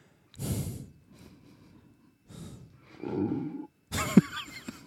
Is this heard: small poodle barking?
no